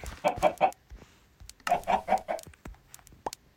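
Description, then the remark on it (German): Two chickens in a video game cluck in short bursts of three or four quick notes, two clusters separated by a brief pause, followed by a few softer scattered clucks. No one is talking. “Also erstmal gehen wir die beiden Hühner wieder schauen.”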